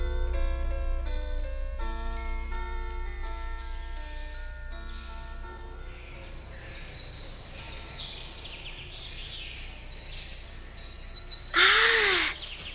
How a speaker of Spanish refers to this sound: Los pájaros silvestres han iniciado su vuelo de todos los años en busca del planeta de la primavera pasarán tan cerca de mi planeta que lo rozarán con sus grandes alas. Es maravilloso el vuelo de estos pájaros azules.